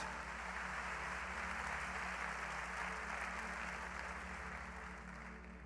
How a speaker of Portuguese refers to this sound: Amém? Você pode dar uma salva de palmas para Jesus bem forte.